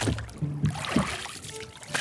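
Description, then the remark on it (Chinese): Oars dip and pull through water as a small boat is rowed, a steady rhythm of soft splashes and sloshing over a continuous watery wash, with no talking. “他挑选偏僻的小路，来到渡船码头，大胆地跳上一艘小船，解开绳子，朝杰克森岛划过去。”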